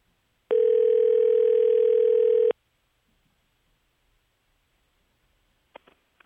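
A single loud, steady electronic ringback tone plays for about two seconds on an outgoing phone call to a fan on his birthday, then stops. Silence follows, and a few faint clicks come near the end as the line is picked up.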